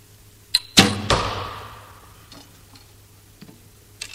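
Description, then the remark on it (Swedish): Arrows strike an archery target: a quick light tick, then two sharp, heavy thwacks that ring and fade, followed by a few faint clicks in a quiet outdoor setting. “Hur många pilar brukar du skjuta innan du går och kollar resultatet?”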